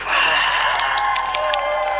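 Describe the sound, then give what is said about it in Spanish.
Dense, steady applause from a crowd with some cheering mixed in, loud and continuous throughout the short burst, like a canned clapping effect. “ahí lo que el Tavo va a insertar son unos aplausos así.”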